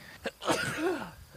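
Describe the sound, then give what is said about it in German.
A single loud sneeze caused by hay fever: a quick sharp intake, then an explosive burst that trails off into a short voiced tail, with no talking around it. “jetzt muss ich dann gerade nüssen wegen dem Heuschnupfen.”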